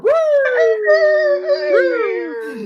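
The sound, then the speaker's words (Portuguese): A rooster crows once in a single loud, drawn-out call that rises sharply, holds a bright, wavering tone, then bends through a second gliding rise before fading, with no talking. “O nosso galo cantante já está aqui.”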